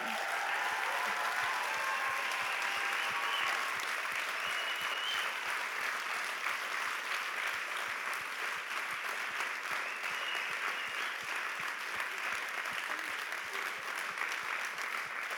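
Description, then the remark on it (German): A large audience claps steadily for about fifteen seconds, giving the speaker's parents a huge round of applause, a dense, loud wash of applause with no pauses and no voices standing out. “Und deshalb lasst uns mal meinen Eltern einen riesigen Applaus geben.”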